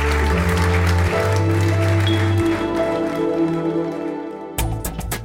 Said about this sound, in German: Haben Sie noch einen schönen Abend, bleiben Sie uns gewogen, gesund und jetzt bitte ich Sie noch einmal um einen herzlichen Applaus für unseren Gast Friedrich Merz.